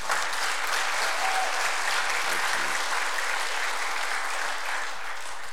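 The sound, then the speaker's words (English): A church audience claps steadily and densely for several seconds in appreciation of a guest preacher after a morning sermon, a sustained wash of applause that stays at an even, fairly loud level throughout, with no voices standing out. “yeah so but would you express your appreciation”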